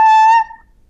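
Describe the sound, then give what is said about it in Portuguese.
A bassoon double reed blown by itself gives one loud, buzzy squawk at a steady pitch for about half a second, then cuts off into near silence. “isto é o som da palheta sozinha”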